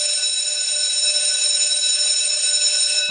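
A loud bell rings continuously for about three seconds, a steady, shrill metallic tone with no pauses and no voices, like a school bell, used as the cue for a general-knowledge quiz question about heavy metal and rock music.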